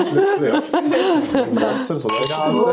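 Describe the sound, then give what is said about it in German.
Wine glasses clink a few times as white wine is poured, amid lively chatter and chuckling, the bright chimes partly buried under overlapping voices. “Tee gibt es heute zwar keine, aber vom Weisswein hat es noch.”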